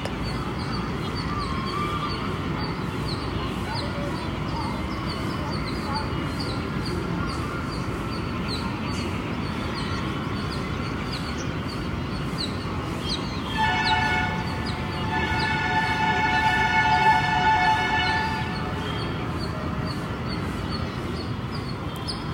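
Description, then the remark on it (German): Busy outdoor ambience of the town of Tiruvannamalai, India, heard from up on a mountain, with a steady rumble of traffic, scattered bird calls, and a long, loud horn-like blare sounding for several seconds midway before fading back into the hum. “auch wenn du vielleicht die Geräusche von Tiruvannamalai im Hintergrund hörst, lade ich dich ein, diese unendliche Stille, die gleichzeitig hier oben am Berg ist und überall ist, in dieser Meditation intensiv wahrzunehmen.”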